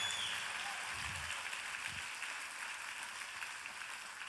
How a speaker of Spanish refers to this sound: Ahora dale el mejor aplauso que le hayas dado al Señor en mucho tiempo.